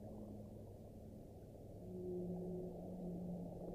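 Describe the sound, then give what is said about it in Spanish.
Long, low whale calls drift and waver over a dense, muffled underwater rumble, swelling slightly louder midway, with no voices present. “Bueno, nos sumergimos con esta música, esos cantos de ballenas”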